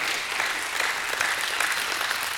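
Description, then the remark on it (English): An audience at Jewel City clapping hands for God, a dense, steady wash of many overlapping claps sustained at an even loudness throughout, with no voices standing out. “Give him a hand clap.”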